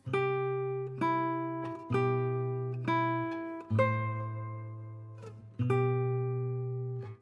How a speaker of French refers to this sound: Ça, c'est le thème principal du film.